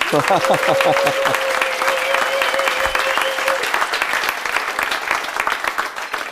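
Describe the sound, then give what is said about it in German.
A live audience of about 132 people applauds with dense, sustained clapping that fills the room for several seconds, along with a few scattered cheers and a brief whistle-like tone early on. “vor mir sitzen, ich weiß jetzt nicht die genaue Anzahl, aber auf jeden Fall ungefähr 120 Leute im Publikum. Vielleicht können Sie hier irgendwie kurz bemerkbar machen, sonst klingt das noch fake.”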